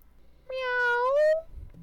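A single drawn-out cat meow, clear, lasting nearly a second with a slight upward lilt at the end, against a quiet background.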